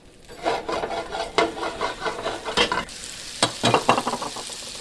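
Shallots sizzle in a pan with a steady, bright crackling hiss as they cook for a sauce and release their water, broken by several scraping strokes as they are stirred. No one speaks.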